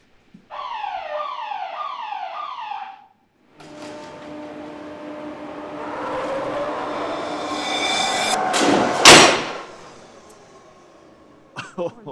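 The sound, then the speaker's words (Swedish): A car crash test in a workshop: a repeating, falling electronic warning tone, then a rising rumble of an approaching vehicle that ends in one loud, sharp crash, followed by fading debris noise. “Ja, det var, det var en ordentlig krock.”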